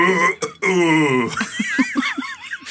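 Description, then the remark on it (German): A person does a croaky, drawn-out burp-like moo, imitating a belching cow; it breaks off into bursts of laughter and squeaky giggles. “Könntest du vielleicht kurz eine rülpsende Kuh nachmachen? Also wie, wie klingt eine rülpsende Kuh?”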